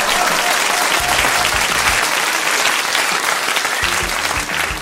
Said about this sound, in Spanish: A quien brindo, eh, pido un fuerte, fuerte, fuerte, fuerte aplauso para su majestad que acaba de llegar. ¡Fuerte el aplauso!